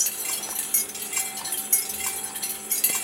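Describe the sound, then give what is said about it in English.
Irregular light clinks of glass being tapped by motor-driven strikers, their motion generated from the tracked speed of bees, with faint ringing tones lingering between hits over a steady bright hiss. No voices. “And to embody the speed into the glass generates a motion of the motors which uh, percute the glass.”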